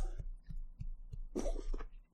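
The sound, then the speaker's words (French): A cat sitting on a person's lap coughs and hacks: a run of soft, rhythmic low thumps, then a harsher, raspy burst of coughing and sneezing near the end. No one speaks. “j'ai mon chat qui est en train de tousser éternuer là qui est comme il est sur mes genoux Allez, vas-y tous.”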